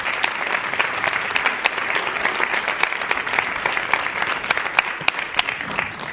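Steady audience applause at an event in Sonservera about Extremadurans abroad, for those who coordinated their schedules: a dense crackle of many hands clapping at an even, sustained loudness with sharper individual claps poking through, and no one speaking.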